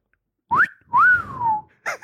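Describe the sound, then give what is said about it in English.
A wolf whistle: a quick rising note followed by a longer swooping tone that climbs and falls away, fairly loud, with a voice starting just after. “I think you did a little wolf, wolf whistle.”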